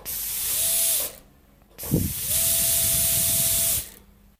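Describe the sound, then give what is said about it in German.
A dentist's drill, recorded during a visit to the dentist, whirs twice, each burst a hissing spray of air with a steady whine that spins up and winds down, separated by a short pause and a low knock. “Die Lösung ist, das ist ein Bohrer vom Zahnarzt.”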